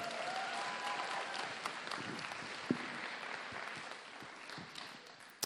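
A crowd applauds steadily, a dense wash of many hands clapping at an even level for several seconds, with a few sharper claps standing out and no voices.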